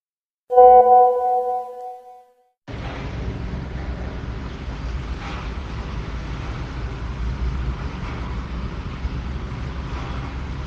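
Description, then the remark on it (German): A brief tonal hum sounds first, then an excavator engine starts a loud, steady low rumble that makes the ground vibrate, on a tree-lined avenue, and runs without pause to the end, with no voices. “Ich sehe einen Bagger. Ich höre ihn auch, ich spüre ihn auch, der Boden vibriert.”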